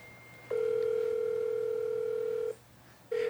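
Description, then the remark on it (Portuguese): An outgoing phone call to Rivaldo rings: a steady, single-pitched electronic beep holds for about two seconds, pauses, then starts again. It is clear, with no one speaking. “Vamos ver se o Rivaldo atende.”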